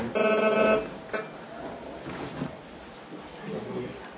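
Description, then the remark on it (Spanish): A mobile phone rings with a short, bright electronic ringtone burst, cutting off after under a second as people talk in the background. “Perdona, lo que tiene que hacer es apagar los teléfonos, no le quite el sonido. Que si no suena ahí”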